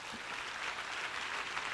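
An audience at a sermon applauds in a steady, dense wash of clapping that holds at an even level throughout, with no clear voices rising above it.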